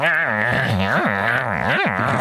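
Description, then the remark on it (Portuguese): A person mimics two dogs growling as they play and nibble at each other: a continuous, loud throaty snarl with rising and falling swoops in pitch, running for a couple of seconds without words. “E tu olhas para aquilo quem não tem cães ou quem não ou quem se calhar quem, quem tiver com pouca atenção diz é pá é, põe, põe fim a isto, os cães estão-se estão a morder.”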